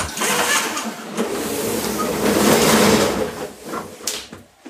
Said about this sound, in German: So, jetzt ist es kurz laut geworden. Ich habe gemerkt, der Wind hm. scheint doch jetzt sich des Fliegengitters anzunehmen. Deshalb habe ich den ah. Rollladen jetzt runtergelassen.